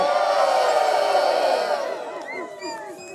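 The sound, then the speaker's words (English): A large live crowd screams and cheers loudly at once, a dense roar of many voices that gradually thins out, leaving a few scattered high-pitched shrieks and whoops near the end. “Now, somebody, everybody in the spot right now, scream.”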